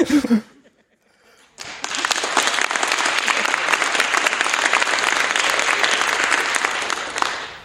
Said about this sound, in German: Ihr wisst, wann ihr klatschen müsst.